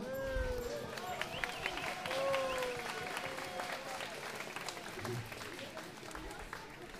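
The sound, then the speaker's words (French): A crowd applauds steadily for several seconds, applauding in advance for a choir, the 'cœur abadakur', a dense patter of many clapping hands holding fairly even in loudness, with voices rising over the clapping in places. “Ensuite, nous avons, euh, ça c'est un pari que nous faisons euh, cette année avec le cœur abadakur que je vous demande d'applaudir d'avance.”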